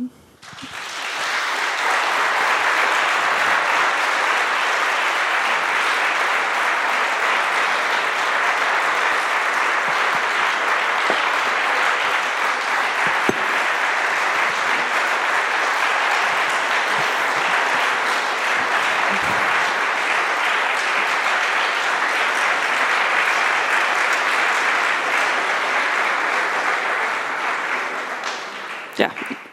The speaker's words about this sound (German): für Sie beide der Applaus.